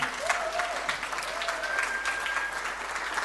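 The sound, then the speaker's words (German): A crowd claps steadily for the rangers for a few seconds, a dense, continuous wash of applause with a few faint whistles or tonal squeaks over it, no talking. “Ja, ein Applaus nochmal.”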